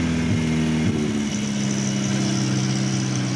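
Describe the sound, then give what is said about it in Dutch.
The engine of a 60-year-old Volvo P1800 car idles steadily with a low, throaty hum and slight irregular sputtering, loud and continuous throughout with no voices. “Hij loopt en hij pruttelt een beetje.”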